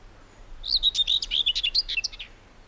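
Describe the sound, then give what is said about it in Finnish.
A common whitethroat sings a brisk, scratchy warble of rapid chirps and buzzy notes lasting under two seconds, clear over a faint low hum. “Viikon luontoääni: Pensaskerttu”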